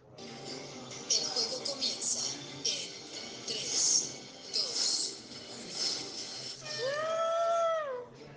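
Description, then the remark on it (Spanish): A single voice hums an upbeat, competition-style tune in quick bursts of notes, fairly loud, ending with a few long swooping tones that rise and fall. “cuando la profesora dice, tienen cinco minutos, mi cabeza suena una canción tipo de competencia y les voy a convertir el audio para que la escuchen y me entiendan.”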